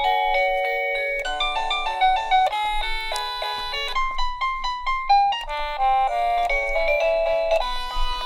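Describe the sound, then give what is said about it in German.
A wireless doorbell, triggered by its battery-powered motion sensor and offering 32 selectable melodies, plays an electronic chime melody: a string of bright, tonal notes stepping up and down in pitch at a steady pace, fairly loud with no talking over it. “Wenn Ihnen das nicht gefällt, Sie können insgesamt 32 unterschiedliche Melodien wählen.”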